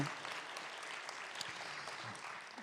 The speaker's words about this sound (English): It is my great, great pleasure to welcome you here for the final reading of the Emerging Voices Fellows of the PEN Center USA 2017. Um, yes, give them a round of applause and keep doing it all night long.